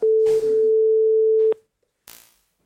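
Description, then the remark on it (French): An outgoing call's ringing tone: a single loud, steady mid-pitched beep holding for about a second and a half, then cutting off into silence before a short rustling noise. “Hop, on lance l'appel.”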